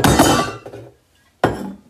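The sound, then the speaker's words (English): A metal water bottle clanks loudly against something, a clattering knock with ringing overtones that fades, then after a short pause a second sharp clank rings out. “Uh, sorry, that was just my water bottle. Metal water bottle.”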